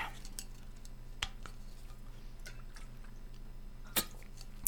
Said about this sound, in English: And I'm just realizing I need a sip of water. Okay.